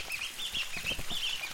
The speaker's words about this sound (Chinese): 你在这边听到很多竹鸡的叫声，过来看一下。